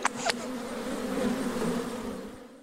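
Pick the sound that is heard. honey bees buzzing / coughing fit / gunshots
honey bees buzzing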